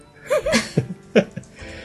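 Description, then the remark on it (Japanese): A few light, short coughs come close together in an irregular cluster, soft and breathy, mixed with small throaty vocal sounds and no speech. “けほけほ言っとられますが。”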